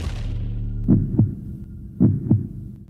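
A heartbeat sound effect: two deep, muffled lub-dub double thumps about a second apart, loud, over a low steady hum with no voices.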